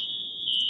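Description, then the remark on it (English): A fire alarm sounds a steady, piercing high-pitched tone that holds unbroken through the whole brief moment, with no voices. “And you can hear the fire alarm going off in the background.”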